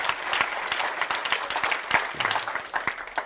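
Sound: audience clapping hands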